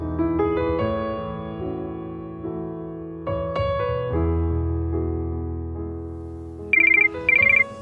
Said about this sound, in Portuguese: De repente, toca o telefone